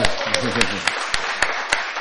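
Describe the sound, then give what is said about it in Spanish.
The audience in the Sala Julián Carrillo applauds itself during a live broadcast on 96.1 FM Radio UNAM, a dense wash of clapping punctuated by sharp, evenly spaced louder claps in a steady rhythm. A voice briefly speaks underneath at the start. “Un aplauso para ustedes, por favor.”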